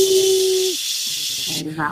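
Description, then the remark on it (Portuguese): A voice imitates a pressure cooker letting off steam with a loud, steady hiss lasting over a second, and a brief low hum and a few vocal sounds mixed in before it stops. “A panela de pressão, é. esse exemplo ótimo, quando ela chega no ponto de exaustão, o que, que ela faz?”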